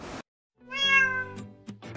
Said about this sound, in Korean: 와옹, 와옹, 와옹. 냐옹, 냐옹. 고양이의 이 소리 언어를 한번 총 정리해 드려 보도록 하겠습니다.